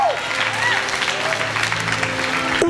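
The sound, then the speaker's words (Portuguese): An audience applauds steadily, a dense wash of clapping that stays loud throughout, with faint sustained tones and voices mixed underneath. “Aplauda e faz alguma coisa, crente, que é o fim do reencontro derramando azeite.”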